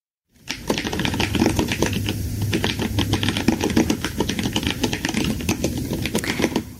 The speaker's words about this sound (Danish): at der bliver øh, hakket godt og, gem, øh, godt, godt og grundigt igennem på, øh, på tastaturet.